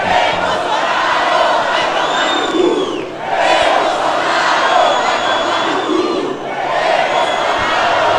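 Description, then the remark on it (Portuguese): A large crowd at a march sings and chants loudly in unison for Bolsonaro, the mass of voices rising and falling in repeated phrases roughly every three seconds, with brief dips between lines. “Lá na marcha a galera cantou também, cantou pro Bolsonaro, cantou pra galera toda.”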